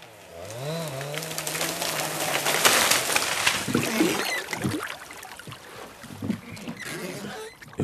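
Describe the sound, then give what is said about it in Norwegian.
Heavy oar strokes pull a slender rowing boat through the sea, with splashing and the creak of wood, while a low tonal call sounds briefly at the start and birds chirp faintly. “Og så kraftige åretak og lyden av sjøen som kløyves av en smekker robåt.”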